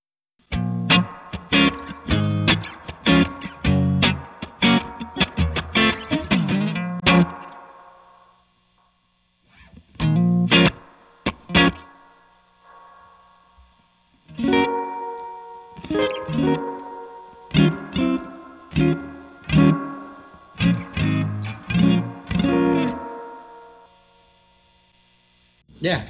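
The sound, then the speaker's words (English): An electric guitar plays through the hall reverb setting of an echo pedal, with bursts of picked notes and chords whose tails hang and wash out. Two busy phrases are separated by a sparse, quieter stretch. No one talks. “It's not the best hall I've ever heard, but it's usable no, uh, even at its most extreme settings.”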